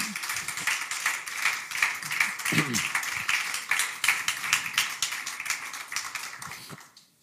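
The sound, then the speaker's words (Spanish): An audience claps hands in praise in dense, steady applause, with a brief voice rising out of the crowd midway before the clapping trails off at the end. “¿Brotará eso una alabanza de sus labios o de sus palmas, hermano?”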